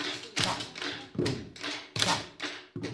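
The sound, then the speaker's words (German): Schoolchildren drum with pens on a hard surface in a classroom, making music rather than writing, in a steady rhythm: about seven sharp taps with short ringing tails, fairly loud, with no voices. “Trommeln mit dem Stift.”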